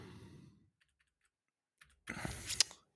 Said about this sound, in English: So I heard you hitting the keys.